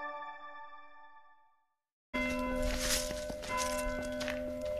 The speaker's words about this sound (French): Un joli bruit de cloche pour nous accueillir à la chapelle des carriers de Saint-Fortunat, tout près de Saint-Didier au Mont-d'Or.